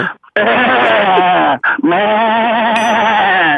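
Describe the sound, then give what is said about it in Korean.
A person imitates a goat with two long, wavering, loud bleats, the voice quivering throughout with a brief breath between them. “염생이 소리 한번 해볼까요? 염소?”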